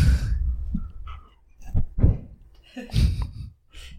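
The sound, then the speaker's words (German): A dog breathes heavily right against the microphone, a series of close, breathy huffs and snuffles with short pauses between, loud and raspy, with no talking. “Das hat sich nicht nach Hund angehört, sondern wie ein alter Mann, der ins Mikro atmet.”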